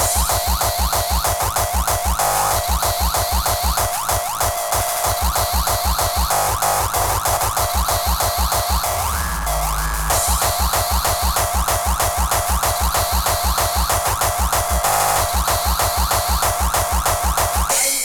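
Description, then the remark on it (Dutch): Loud, busy electronic synth loop of quick, bouncy boing-like blips, like a ping-pong ball bouncing, repeating in a steady rhythm with a brief low swell midway and no voices. “Eh, dat lijkt wel een beetje op het geluid van een stuiterend pingpongballetje.”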